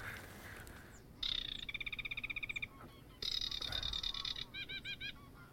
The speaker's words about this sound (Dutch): Wat is dat? Cheap, cheap, dat zijn bedelende rietgorsen die bijna oh. klinken als een graszanger. Ja. Maar het is een goede vraag. Want, want het is een bedelende rietgors die klinkt als een graszanger. Het is zo hoog riet.